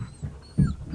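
A one-year-old dog named Spunky, excited at seeing a squirrel, huffs and pants in short rhythmic bursts, with one louder, sharper burst midway, like an excited half-bark, and a faint whiny tone above.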